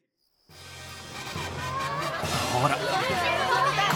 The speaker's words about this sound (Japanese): 今日も遊園地はとても賑やかで動物たちの歓声があちらこちらから聞こえてきます